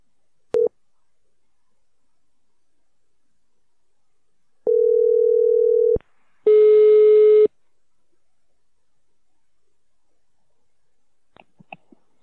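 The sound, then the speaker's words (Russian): Telephone ringback tone on an outgoing call to a company's mobile number: a brief beep, then a long, steady mid-pitched tone, followed by a harsher, buzzier tone and a few faint clicks, with no talking. “Мы сейчас попробуем позвонить в эту компанию, потому что наш интернет-радар показал, что здесь что-то не так, и надо, собственно, разведать и узнать.”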